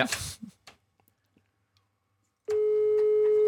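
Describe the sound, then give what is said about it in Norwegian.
A short burst of noise and a few faint clicks, then a steady, loud telephone ringing tone of an outgoing call to Morten Ramm begins and holds unbroken until the end. “Oh, ja, ja, ja, On that note ringer vi Morten Ramm.”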